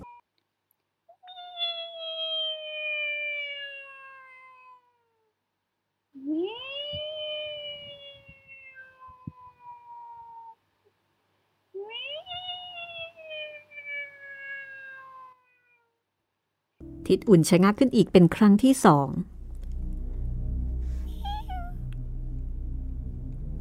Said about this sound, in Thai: แต่ก็ไม่อาจจะเห็นได้ว่า แมวตัวนั้นร้องอยู่ตรงไหนเมื่อมองไม่เห็น ทิดอุ่นก็ออกเดินต่อไปอีก เสียงแมวก็ปรากฏขึ้นอีก